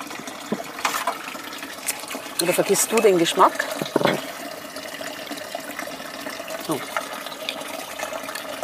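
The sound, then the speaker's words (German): Sonnenquelle water pours briefly into a glass for tasting, a short rising gurgle lasting a couple of seconds, with people talking quietly before and after. “Okay, nächstes Wasser, sonst vergessen wir es ja.”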